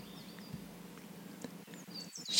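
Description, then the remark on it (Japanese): Small birds chirp softly and intermittently among green trees over a quiet, steady forest ambience, with a few faint rustles and a slightly louder chirp near the end. “軽く目を閉じて青い木々そこから漏れてくる木漏れ日暖かく心地の良い森林浴をイメージしてみてください木々が立てる音や小鳥のさえずりに意識を向けましょう”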